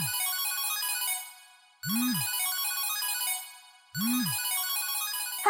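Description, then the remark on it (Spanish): A bright electronic notification jingle announcing an arrived voice message plays three times in a steady cycle of about two seconds, each with a quick low swoop at its start under chiming, melodic high tones. No one speaks. “¡Ay! Llegó un mensaje de voz.”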